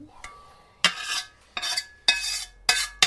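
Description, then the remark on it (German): Mushrooms are put into a hot pan beside rice and sizzle and crackle while being stirred, with four or five loud bursts of scraping and hissing separated by brief quieter pauses. “Und dann die Pilze kommen auf die andere Seite. Vorsicht, das wird laut.”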